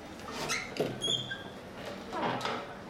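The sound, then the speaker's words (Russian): The door of a house creaks open with a brief, thin, high-pitched squeak, after soft shuffling footsteps and rustling. The sounds are fairly quiet, with no voices. “Дверь со скрипом отворилась, и выглянул старик-китаец с жидкой бороденкой в черной шапочке.”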